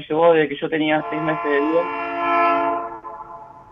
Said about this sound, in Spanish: Eso fue un tren que pasa.